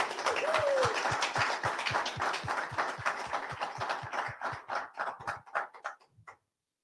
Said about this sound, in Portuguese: Uma salva de palmas.